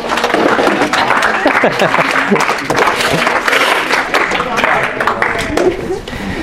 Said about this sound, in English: Why don't we clap for them just because we can?